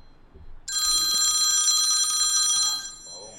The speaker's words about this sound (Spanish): ya tú sabes lo que es eso, ese ruido, ya tú sabes lo que significa. La, llamada, la llamada caliente del podcast Club Soccer